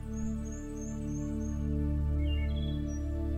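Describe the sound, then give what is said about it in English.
Scattered high, thin bird chirps and short song phrases from birds high up in a forest canopy, sitting faintly above a steady, loud low humming drone that fills the background throughout. “Take some time now to walk as you listen to the birds high up in the canopy and continue to relax more and more deeply with each step you take.”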